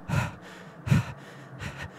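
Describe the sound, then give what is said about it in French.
Heavy, ragged panting: three loud breathy gasps about a second apart, with nothing else in between and no talking. “on, on, on, entend la respiration haletante, là.”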